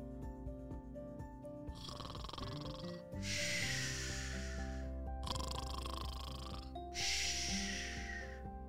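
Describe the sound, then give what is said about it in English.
Heavy, rhythmic snoring from sleeping parents, loud, with about four long rasping breaths alternating between a rumbling inhale and a hissing exhale, over a steady low musical drone. “That was the sound of her parents sleeping.”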